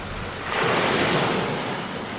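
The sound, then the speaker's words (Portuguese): Ocean surf rolls in and breaks on the shore, a broad hissing wash that swells up after half a second and holds steady, with a low rumble underneath and no voices. “Ora, eu espero surpreender-vos quando escutarem o programa, porque vamos fechar a falar do mar, o mar sonoro, com as palavras de Sofia de Mel Brenner.”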